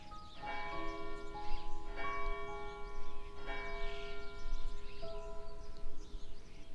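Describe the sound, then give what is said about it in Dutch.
Church bells ring out in overlapping, resonant peals, several strikes arriving at a steady pace with long humming tones lingering between them. No one speaks. “Einde februari, begin maart klinken de klokken anders dan de maanden voordien.”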